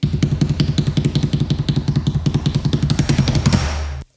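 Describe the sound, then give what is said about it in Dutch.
A voice imitates a drumroll with a rapid, steady run of low, buzzing pulses, like a rolled tongue or lips, lasting about four seconds and ending abruptly, done to announce the app of the week. “Dat is een soort tromgeroffeltje. Doe je, doe je even een tromgeroffeltje?”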